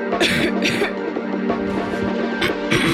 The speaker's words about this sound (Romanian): Tuse!